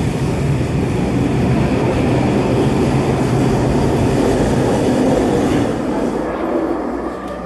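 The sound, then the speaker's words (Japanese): A metro train rumbles loudly as it arrives at Stadium–Chinatown station, its steady low roar and rattle easing and fading over the last couple of seconds as it slows to a stop. “電車降りました勘違いしてたんですけど僕が使いたい駅の電力不足なんじゃなくてその次の駅が電力不足で動いてないらしいのでちょうど僕が行きたい駅までは電車で来ることができました”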